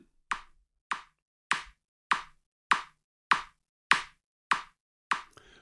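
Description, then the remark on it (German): Nine sharp, evenly spaced taps in a steady rhythm of roughly one hundred per minute, demonstrating the 100 to 120 per minute pace of chest compressions, each a crisp knock with a short decay, with no voices around them. “Ich mache dir das mal vor. 100 bis 120 pro Minute hört sich so an.”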